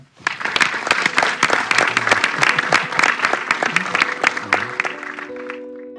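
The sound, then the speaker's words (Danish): A crowd applauds steadily for about five seconds, dense clapping with sharp individual claps standing out, then it fades as a sustained tonal note rises underneath at the end. “Vi giver den hånd.”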